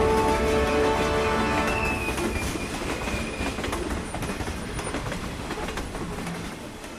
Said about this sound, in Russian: Свисток на паровозе. Поезд тронулся.